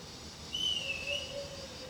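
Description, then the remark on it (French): A shepherd's single sustained mouth whistle, used to communicate, a high steady tone held for about a second with a slight pitch dip, heard faintly over low background hiss. “Tout petit, j'avais déjà appris à siffler parce que c'était le portable d'époque.”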